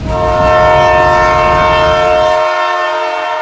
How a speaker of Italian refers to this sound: i piedi dell'uomo sono in mezzo ai binari del treno Genova Ventimiglia, treno che alle 14.39 arriva puntuale.